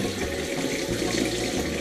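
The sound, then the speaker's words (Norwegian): Water at 37 degrees streams steadily from a tap, a continuous splashing hiss with a low gurgling undertone, running without pause and with no voices over it. “skal jeg liksom ha vann ja, som er 37 grader.”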